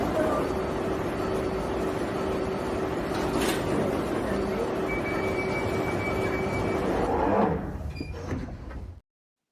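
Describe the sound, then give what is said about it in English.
A steady, loud rumble of an underground train at a station platform, with a sharp clunk partway through and a shift near the end as doors slide and brief chime-like tones sound. “Mind the gap between the train and the platform. Please stand clear of the discussion doors.”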